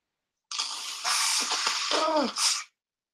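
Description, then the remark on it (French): Someone with a cold blows their nose: about two seconds of loud, hissing, wet blasts in a few surges, with a brief nasal honking whistle near the end, and no talking. “Alors, je mouché, hein, je suis désolé. Je suis enrubé.”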